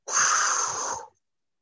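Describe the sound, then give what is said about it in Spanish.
One strong, forceful exhale after a deep breath during a guided breathing exercise: a loud, breathy rush of air pushed out steadily for about a second, then cut off sharply, followed by silence. No talking. “Entonces, vamos acá golpeteando, respiramos profundo. Soltamos con fuerza, así.”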